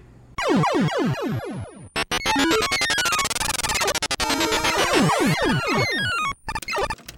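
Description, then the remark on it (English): Old-school arcade game sounds at a Barcade: a string of quick descending electronic zaps, then a loud, dense burst of buzzing bleeps sweeping up and down, ending in more falling chirps. No one talks. “Discuss the case over old school arcade games?”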